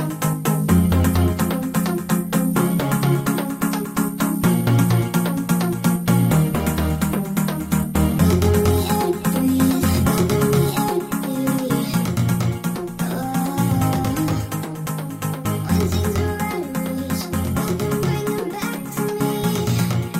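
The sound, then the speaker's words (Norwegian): Loud, dense electronic music made on an Amiga plays continuously, with a fast driving beat, heavy pulsing bass and bright layered synths filling the mix. It sounds like a drum and bass track, with no voices. “sånn her eh, drum and base-shit, eller jeg vet ikke hva det er.”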